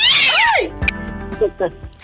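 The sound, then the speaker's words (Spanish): A single drawn-out cat meow rises and falls at the start, clear, and then a person begins talking. “agárrame el gato y juega con él.”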